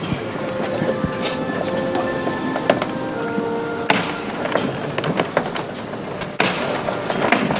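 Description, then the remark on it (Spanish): The third hammer knock on a procession float carrying a Christ figure, signaling the team of bearers to lift it again, rings out as sharp wooden strikes above a steady murmur of crowd noise and faint sustained tones of chapel music. “Tercer golpe de martillo, de nuevo se levanta la cuadrilla de costalero.”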